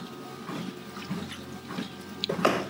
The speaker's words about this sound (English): Okay, let's get some water into me.